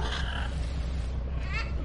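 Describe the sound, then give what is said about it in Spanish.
A parrot screeches loudly as a man is dragged toward a cabin, letting out two harsh, raspy screeches, one at the start and another near the end, over a steady murmur of background noise. “El loro chilla estrepitosamente mientras Doc empieza a arrastrar a Al hacia el camarote”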